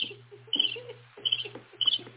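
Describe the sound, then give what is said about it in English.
Birds chirp in short, high bursts about every half second, fairly faint against a steady low hum, with no voices. “I'm gonna let the birds chirp because I want to say something else.”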